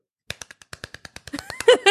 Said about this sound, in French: Puis pendant deux trois secondes, on, on applaudit, mais on a une façon d'applaudir. là C'est comme on colle nos mains là, puis on applaudit le super rapidement. Là, ça donne quelque chose à peu près comme ça.